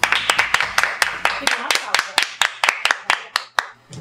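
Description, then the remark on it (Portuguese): A short round of applause: a small group clapping steadily and briskly for about four seconds, sharp claps in a quick, slightly uneven rhythm that tapers off at the end. “Pois bem, respondemos, pagamos os devidos mix, acho que a gente merece uma salva de palmas.”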